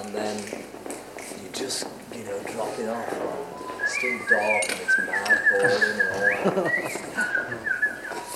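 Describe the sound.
A person whistles a warbling, birdlike tune, imitating birdsong with rising and falling trills, fairly loud, while another voice talks underneath.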